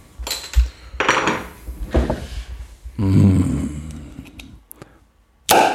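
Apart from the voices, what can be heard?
beer bottle being opened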